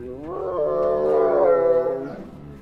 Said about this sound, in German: Der sibirische Tiger, von dem es schätzungsweise nur noch etwa 500 in freier Wildbahn gibt.